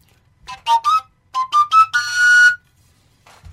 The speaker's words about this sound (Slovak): To je koncovka.